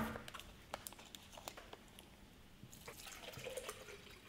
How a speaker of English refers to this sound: put some water in the blender.